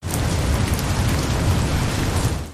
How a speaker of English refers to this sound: And when they got back home from mincha, the sky was clouded, and it started raining, and then a little bit of rain turned into a downpour,